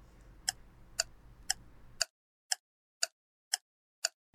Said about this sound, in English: actually, you want to start a shot clock for this because we, we went long. You want to go like seven minutes on this quarter? Sure. All right, seven minutes.